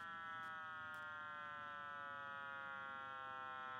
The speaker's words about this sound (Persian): در سال 1965 در شهر نیوجرسی دو تا اخترشناس رادیویی با نامهای آرنو پنزیاس و رابرت ویلسون مشغول کار با یه آنتن ارتباطی خیلی گنده در آزمایشگاه بل بودن و سعی داشتن اونو راه اندازی کنن ولی یک چیزی خیلی رو اعصابشون بود یه نویز رو مخ و پیوسته به این شکل